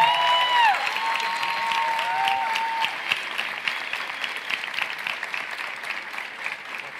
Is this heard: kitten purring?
no